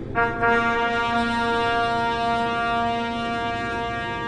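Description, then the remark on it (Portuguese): A single loud trumpet blast, one long steady brassy note with a rich buzzing tone, held for about four seconds with no voices. “Quando tocarem sons curtos e fortes, as tribos acampadas a leste deverão começar a sair.”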